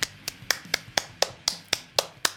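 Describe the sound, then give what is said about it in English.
A single person clapping in a quick, steady rhythm, about ten sharp, bright claps evenly spaced over a couple of seconds, with no voices. “Big round of applause.”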